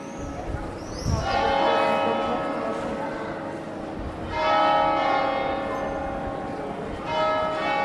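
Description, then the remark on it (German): Deep bells of the cathedral in Cremona ring out through the old town in slow, overlapping strikes, their long resonant tones swelling and fading, and no other sounds intrude. “in Cremona hängt der Himmel nicht ganztägig voller Geigen, die Glocken des machtvollen Bischofsdomes dröhnen zu interessanten Zeiten durch die ganze Altstadt”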